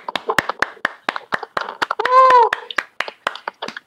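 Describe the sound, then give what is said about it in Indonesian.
Sharp hand claps ring out in an uneven, lively rhythm for several seconds, with a brief sustained vocal whoop rising over them midway. “Tepuk tangan.”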